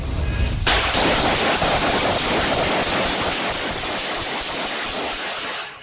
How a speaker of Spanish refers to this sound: Este es el aterrador sonido de más de 30 disparos en plena calle. La policía reveló un video que muestra el auto Audi color negro que usaron los pistoleros que atacaron en Cincinnati, Ohio.